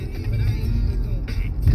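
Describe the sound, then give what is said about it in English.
A voice imitates Formula One race car engines with a steady run of low, buzzing revs that rise and fall in quick succession, fairly loud, with no other sounds around it. “And I would sit in their in, the, in their window in their kitchen, just watch the Formula One cars just vroom vroom vroom vroom vroom vroom.”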